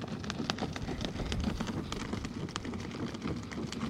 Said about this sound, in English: But do you hear that? That crackling? So, that crackling sound is the sound of water moving through the siphons.